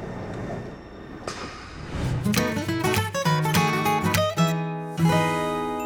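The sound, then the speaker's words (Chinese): A metro (MRT) train running toward Qili'an station, with a low steady rumble that gives way to a layered electric motor whine, its tones shifting and pulsing for several seconds before easing back into rumble. No one speaks. “我们今天要做捷运到哪里呢？”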